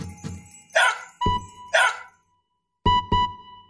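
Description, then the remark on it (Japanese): A beagle named Choco, a police dog, barks in a run of about six sharp, loud barks and yips, with a brief pause before a final quick pair. No one speaks. “チョコはかわいいビーグル犬だ。”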